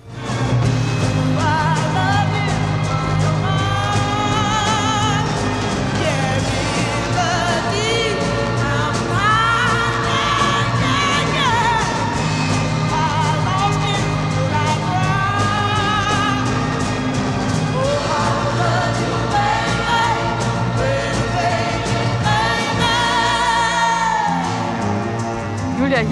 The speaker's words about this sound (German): Sie geht ganz hoch mit der Stimme und drückt die Töne richtig schön raus und zwar in diesem Belting-Gesangsstil.